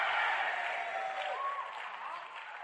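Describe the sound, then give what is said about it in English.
An audience claps and shouts together, a dense, continuous wash of applause mixed with raised voices that holds steady throughout and eases off slightly toward the end. “Come on, clap your hands and shout, say yes.”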